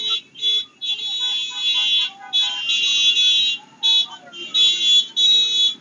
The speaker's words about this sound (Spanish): Estoy en el puente de dos hermanos, llevo más de media hora. Hay sobre cuatro mil motoras y la gente está gritando, eh, no tenemos miedo. Escuchen, escuchen cómo está esto